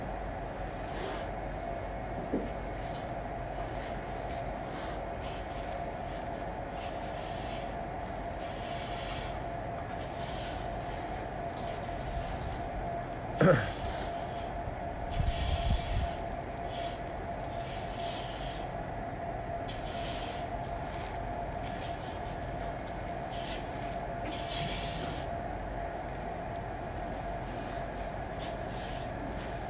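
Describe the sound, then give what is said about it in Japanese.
A man rakes up leftover feed with a rake that scrapes repeatedly over a rough surface, giving irregular dry scratching strokes under a steady mechanical hum, with a couple of louder knocks partway through and no talking. “今親父が熊手で残 暑を取っているカリカリしてる音が聞こえるかと思います”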